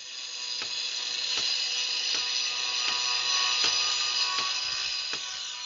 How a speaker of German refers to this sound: Damit Sie sich vorstellen können, wie es bei mir im Homeoffice gerade zugeht, ich lebe gerade auf einer Baustelle.